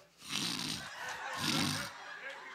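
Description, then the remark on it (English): A voice mimics snoring with two drawn-out, raspy breaths in steady succession, each a rough, throaty rumble with a hissing edge, fairly loud. “You ain't snore.”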